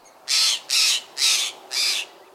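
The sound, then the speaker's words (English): A jay gives four harsh, raspy calls in a steady, evenly spaced series, loud against a quiet background with no other sounds. “Picture the blue jays of the east, or Steller's jays of the west.”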